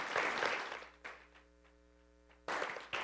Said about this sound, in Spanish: O oh, dale el aplauso. Eh. Yo creo que eso sí merece un aplauso.